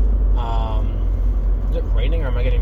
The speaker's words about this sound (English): I'm driving currently, but again, as you probably hear from the noise of the car.